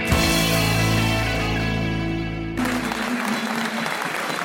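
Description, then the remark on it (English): A large football crowd at Griffin Park cheers and claps the players off at the final whistle of a Brentford versus Birmingham City match, a dense, steady roar that takes over after a few seconds of sustained tonal music, with no clear talk. “you can hear it's the end of the match the players are getting cheered off. The crowd are cheering.”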